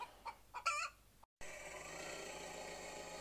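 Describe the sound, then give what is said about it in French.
Hens cluck in a few short bursts during the first second, then the sound cuts out briefly and gives way to a steady, even hiss of background noise. “Les poules caquetaient.”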